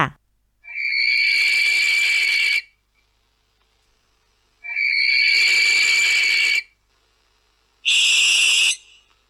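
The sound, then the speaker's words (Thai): Three harsh, drawn-out screeches of a barn owl from Thailand, each a raspy hiss lasting a second or two, separated by short silences; loud, with no talking. “นกแสกของประเทศไทยค่ะ”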